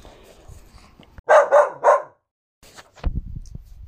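A dog lets out three loud barks in quick succession, followed by a brief pause and some low, muffled rustling.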